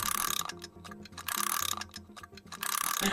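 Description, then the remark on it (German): Bursts of rapid, dense ratchet clicking from a small watch winding mechanism being assembled by participants at a watchmaking workshop, fairly loud, repeating about three times with softer mechanical ticking and faint tonal ringing in between. “nach Unruh und Räderwerk kämpfen die Teilnehmer jetzt mit der Aufzugspartie.”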